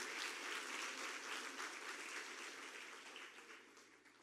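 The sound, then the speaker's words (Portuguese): A crowd at a church service claps for Jesus in steady, sustained, dense applause that holds at a fairly even level before gradually tapering off toward the end, with no voices standing out. “Aplauda Jesus se você tem fé que isso é para a tua vida e para a tua história.”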